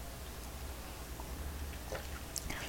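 Someone takes quiet morning sips of hot, bitter black coffee with no sugar: a few soft, wet slurping and swallowing sounds toward the end, over a faint steady hiss, with no talking.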